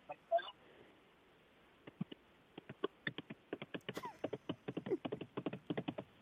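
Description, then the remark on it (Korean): A person clicks their tongue to imitate galloping horse hooves: a brief vocal sound, then about four seconds of sharp clip-clop clicks in a quick rhythm that grows denser toward the end. “이제 달립니다. 말발굽으로 갑니다.”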